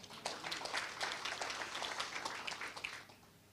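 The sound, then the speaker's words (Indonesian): An audience at a church sermon applauds together for God, a dense wash of many hands clapping steadily for about three seconds before fading out, with no one speaking over it. “Sama-sama berikan tepuk tangan buat Tuhan.”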